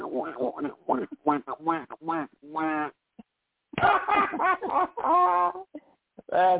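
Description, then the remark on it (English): A novelty duck horn quacks in quick nasal honks, a rapid cluster of bursts followed by a brief pause and another run of quacks, loud. “Actually, wow, so anytime I blow the horn, this is what it would probably sound like.”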